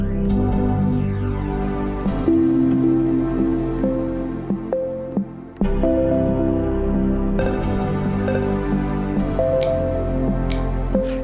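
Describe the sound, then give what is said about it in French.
Macintosh computer startup chimes from different generations spanning 45 years, arranged into a piece of music in GarageBand: rich, sustained electronic chords ring out loudly, briefly cut off midway, then return with new tones stacking in. No voices. “45 ans de sons de démarrage et autres bruits mythiques issus des différentes générations de Macintosh, transformés en notes et montés sur GarageBand bien sûr.”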